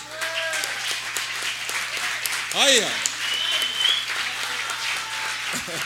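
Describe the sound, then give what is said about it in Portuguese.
Sustained applause from an audience for two musicians who have played together since 1957, 62 years, a dense steady wash of clapping lasting several seconds, with a few voices calling out and a brief cheer rising over it. “Vocês podem levantar um pouquinho só para a gente dar uma salva de palmas para vocês?”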